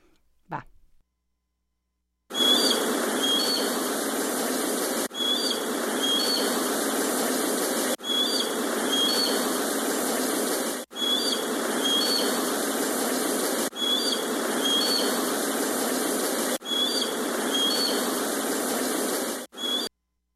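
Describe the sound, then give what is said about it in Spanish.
A hawk's high, sharp cries repeat over a loud, steady roar of street traffic, the same few-second stretch looping several times with brief breaks between repeats. “nos mandó una postal sonora de Halcón y Tránsito”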